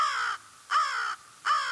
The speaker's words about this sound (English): Crow caught him in midair, had some sharp words for me, and settled in with lunch.